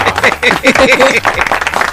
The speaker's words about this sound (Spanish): Eh, diablo, que corto ese aplauso, ¿qué pasó ahí? Nada más le 10 chavos más al aplauso, señores. Ahí está.